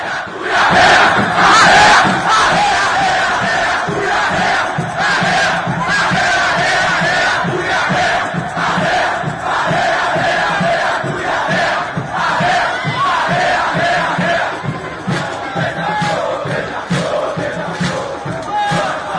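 A large crowd of football supporters loudly chants a maracatu song in unison, voices rising and falling together in a steady rhythmic groove that carries on without a break for the whole stretch.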